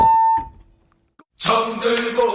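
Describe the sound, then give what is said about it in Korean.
A ding-dong-dang correct-answer chime for a quiz segment on the radio program Park Myung-soo's Radio Show ends on a bright, steady bell tone that rings and fades. A short silence follows, then loud, busy music kicks in. No one speaks. “딩동댕 한번 쳐주세요.”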